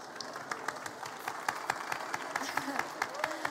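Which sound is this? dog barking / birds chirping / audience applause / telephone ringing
audience applause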